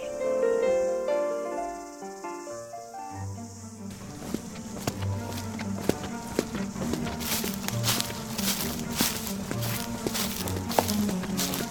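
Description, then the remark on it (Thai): Soft music fades out, then steady footsteps crunch along at an unhurried walking pace as a group of men walk back and forth late at night, past midnight, stopping here and there, with faint insect-like chirring in the background and no one speaking. “พากันเดินไปเดินมา แวะที่นั่นนิดแวะที่นี่หน่อย จนเวลาดึกประมาณสองยามเศษ”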